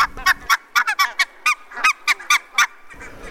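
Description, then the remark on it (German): A rapid series of about fifteen short, nasal honking calls from sea geese, bunched irregularly in quick bursts, fairly loud and with no talking over them. “auch eine nennenswerte Population dieser schönen Meeresgans, die übrigens gern in der Nähe von Wanderfalkenhorsten brütet, damit die Wanderfalken die Polarfüchse in Sibirien äh, vertreiben und dass die da schön ihre Jungen groß kriegen.”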